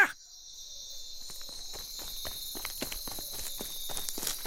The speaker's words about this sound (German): Schon hört man draußen lautes Stampfen und ein großer Vogelstrauß steckt seinen Kopf ins Fenster der Maschine.